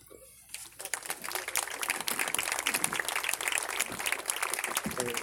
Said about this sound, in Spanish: Él nos va a compartir un poco cómo está eh, el trabajo con la recolección de firmas para eh, que Marichuy eh, pueda convertirse en candidato independiente en 2018. Un aplauso.